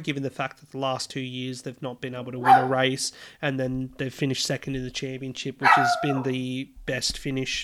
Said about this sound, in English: apologise for the barking in the background. That is Little Lulu, a, a rescue poodle that we've just adopted